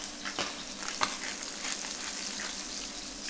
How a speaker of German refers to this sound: Während ich mich jetzt, glaube ich, ins Nebenzimmer begebe, weil mir ja, los, das Fett ins Gesicht spritzt.